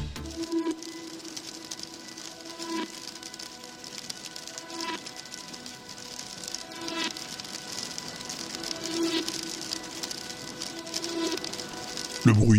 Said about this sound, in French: la pluie, du vent. C'est beau, non, tu trouves pas